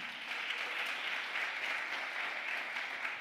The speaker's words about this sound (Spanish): ¿Cuántos le dan un aplauso fuerte a papá?